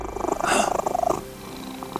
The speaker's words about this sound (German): Da kam die Katze wieder zu sich, da hat die wieder geschnurrt